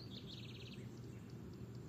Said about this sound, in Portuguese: para o universo e para os passarinhos. Vocês estão ouvindo, né?